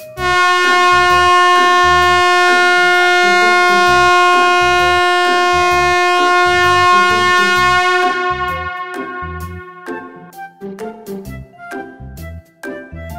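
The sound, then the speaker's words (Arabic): Loud, sustained car horns blare together for several seconds at a traffic light, then break into shorter overlapping honks and blasts from impatient drivers behind a first car that has not moved. No one speaks. “بسم الله ايش صاير ليش كذي الهرن اها اول واحد ما متحرك اكيد على تليفونه او ما مركز في الاشاره وعاد اللي وراه ما فيهم صبر لازم يزعجون بهالهرنات”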